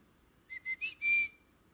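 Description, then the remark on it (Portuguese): A person whistles at the door on arriving home: a quick high-pitched call of three short clipped notes followed by one longer, sustained note, heard on its own with no talking. “Mas quando os meninos estão, eu da porta, eu, eu assovio, dou um assovio.”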